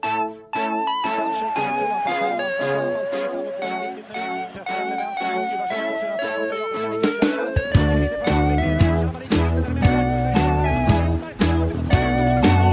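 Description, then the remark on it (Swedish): An upbeat instrumental theme jingle for the show Della Sport, with bright, steady rhythmic hits and a melody that swells midway as heavy bass and drums kick in, playing loudly on its own for about thirteen seconds. “Då tryckte jag på record där och så kommer du alldeles strax höra en signatur.”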